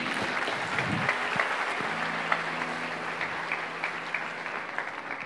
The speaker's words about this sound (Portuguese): Dê uma salva de palmas ao Senhor aí.